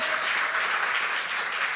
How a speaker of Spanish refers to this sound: Usted va a aplaudir a Dios, pues hágalo bien, hágalo bien.